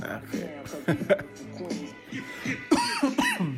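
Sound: coughing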